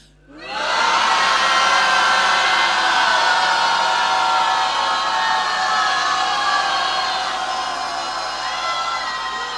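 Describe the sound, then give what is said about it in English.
A church audience roars together at disease and sickness on a count of three, in one loud, sustained collective shout that bursts in almost at once and holds steady for about nine seconds, easing only slightly toward the end. “Now, we're going to roar at disease and sickness.”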